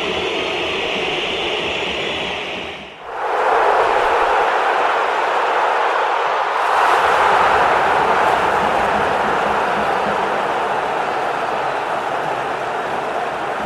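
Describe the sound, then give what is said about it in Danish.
A massive football stadium crowd of fans whistles loudly in protest as FC Copenhagen takes the ball at the start of the match, a dense, shrill, sustained roar that barely dips once before surging back even stronger and continuing without a break. “kampen i gang, og øh, det er altså FC København, der er først på bolden, hvorfor man kan høre den her meget intense pibekoncert, fra Trapsom som fansene.”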